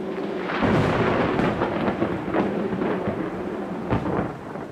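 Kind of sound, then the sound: nature, thunder rumbling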